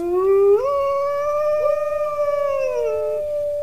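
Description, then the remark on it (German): A single wolf howls in one long, clear, sustained note that climbs at the start, then holds steady and fades. It is loud, with no voices. “Auf der Tagesordnung Wasser, Luft, Moore, Artenschutz und der Wolf.”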